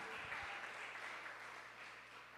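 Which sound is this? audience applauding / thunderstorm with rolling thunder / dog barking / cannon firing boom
audience applauding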